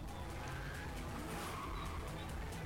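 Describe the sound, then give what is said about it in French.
A Japanese car engine runs steadily and fairly loud for a few seconds, a continuous low rumble with a broad hiss on top and slight surges in intensity. “ça a l'air d'être un, bruit de moteur japonais.”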